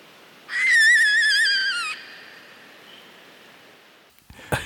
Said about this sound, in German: Das, das klingt so eskalativ von diesem komischen Vogel, ey. Zieh dir rein.